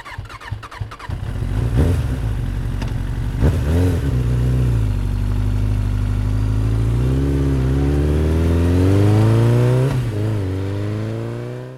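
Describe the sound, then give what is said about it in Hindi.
A motorcycle engine starts with a sputtering clatter, then revs loudly, its pitch rising and falling through several throttle bursts as it accelerates away, with no talking. “इतना कहकर मोटरसाइकिल उड़ाता वो चला गया था”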